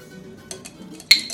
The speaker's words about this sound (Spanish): Entonces, primer paso, que lo que vamos a hacer, es agregar dos hielos al café.